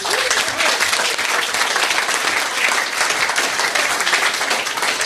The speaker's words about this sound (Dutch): Graag even een applaus.